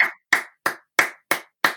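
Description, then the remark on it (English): A single person claps six times at a steady, moderate pace, each sharp clap ringing out clearly with brief silence between, and no talking. “who is clapping for themselves right now?”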